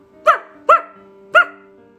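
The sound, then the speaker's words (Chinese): A stray dog barks three times, two quick sharp barks and then a third after a short pause, each loud and harmonic over a faint steady hum, with no talking. “而且随即还响起了流浪狗的犬吠声。”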